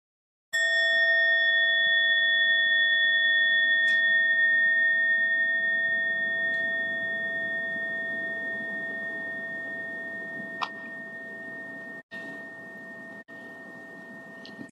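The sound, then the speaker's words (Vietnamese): A Buddhist meditation bell is struck once, and its clear, steady tone rings out with layered overtones for about fourteen seconds, fading slowly and never quite dying away. No one speaks. “mình theo dõi hơi thở mình lắng dịu thanh tâm mình để cho tiếng chuông đưa mình trở về với trái tim của mình thì như vậy mới đúng cái truyền thống hơi thở vào hơi thở ra sau đó mình mới thịnh một tiếng chuông”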